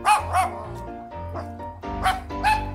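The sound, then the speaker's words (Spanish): A man hiding under a bed imitates a dog, giving about five loud barking yelps in two quick pairs with a pause between, ending in a final bark. “No, no, debajo de la cama, debajo de la cama hay un perro. Y el hombre debajo de la cama hace...”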